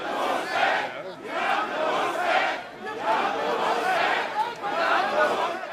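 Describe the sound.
A large crowd of about 2000 farmers booing, whistling and jeering loudly outside a town hall, the noise swelling in repeated waves over several seconds with a constant roar of voices underneath.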